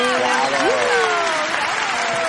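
Steady, dense applause for a contest winner fills the whole stretch without letting up, with excited voices and a few rising whoops mixed in over the clapping.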